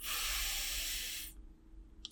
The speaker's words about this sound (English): So, one of the number one things you can do that takes just a few seconds is deep breathing. Literally, just breathe through your nose